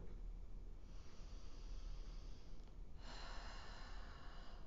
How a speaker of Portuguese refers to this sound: Mas agora convido vocês a me acompanharem numa respiração.